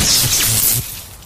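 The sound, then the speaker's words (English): A loud crash of a flat screen television hurled off a building and smashing, with bright, crackling debris that sustains for under a second before dropping away into a fading rattle. No voices. “This is the sound of a flat screen television hurled off a building”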